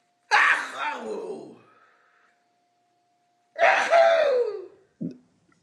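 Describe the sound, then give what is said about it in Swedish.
Two loud, breathy sneezes about three seconds apart, each a harsh burst that trails off, followed by a brief low snort. No one speaks. “Jag ska bara nysa här tror jag.”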